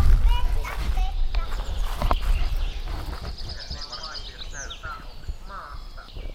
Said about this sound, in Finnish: Niin tässä se nyt on sitten sijoittunut hieskoivun latvukseen ja laulaa siinä ihan paikallaan. Tässä tietysti ajattelee, että tuossa voisi olla niittykirvinen, mutta sitä enemmän kuulostaa kyllä tuollaiselta metsäkirviseltä.